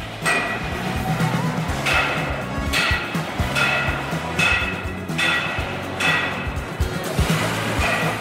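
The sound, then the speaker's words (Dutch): Busy car factory floor ambience, with robots at work and the line being converted: a steady mechanical hum under sharp metallic bangs that repeat roughly every second, like hammering or machinery at work. No one speaks. “Kijk, hier zijn ze, ja, hier zijn alles aan het ombouwen.”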